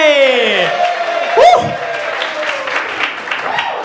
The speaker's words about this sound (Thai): โหยดีใจจังมีคนปรบมือให้